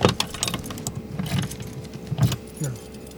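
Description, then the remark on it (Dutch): Keys jangle and clink in short bursts as someone fumbles through a bunch, trying them one after another to open a cabinet holding methane-flux measuring electronics in a marshy field, with a low rumble in the background. “Kijk wat ik een goede sleutel heb hoor.”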